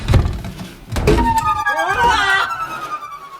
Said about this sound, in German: Tja, nun schließen wir die Tür.